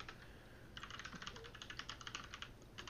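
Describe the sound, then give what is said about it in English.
Rapid typing on a computer keyboard as someone looks up a name, a quick run of light clicks starting after a brief pause, steady, continuing with a short gap near the end over a low background hum. “Uh, and if I could type.”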